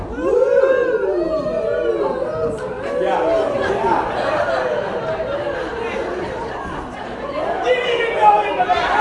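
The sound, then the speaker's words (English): A large audience shouts overlapping rising-and-falling "woo" calls row by row, starting from the front row, rolling on continuously and loud, with a fresh swell of voices toward the end. “what you're gonna do is when the row in front of you goes woo, the row in front, then your row go woo.”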